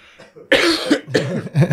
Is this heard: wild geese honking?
no